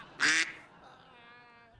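A duck lets out one loud, raspy quack, followed by a softer, drawn-out nasal call that fades over the next second or so, with no talking.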